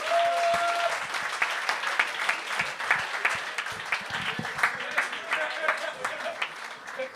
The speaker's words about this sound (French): On pourrait l'applaudir là-dessus.